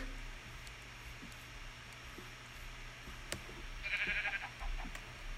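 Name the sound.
sheep bleating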